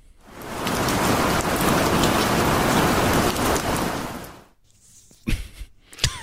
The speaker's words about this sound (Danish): Prøv lige at spille den der, prøv lige at spille den der regnværsting igen.